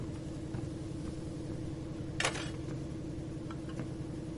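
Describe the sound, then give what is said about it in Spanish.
A constant low mechanical rumble of a ship's engine room drones throughout, with a brief sharp hiss midway and a few faint metallic ticks over the steady hum. No one speaks. “¿Qué coño haces en la sala de máquinas?”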